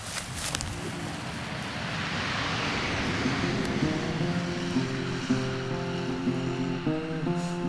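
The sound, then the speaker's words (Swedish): A heavy truck rumbles by Tavlan's exercise farm, heading north toward the sawmill in Nössemark, its engine droning steadily as a broad wash of road noise swells and lingers, with no one speaking. “Ännu en lastbil dundrar förbi Tavlans motionsgård på väg norrut mot sågverket i Nössemark.”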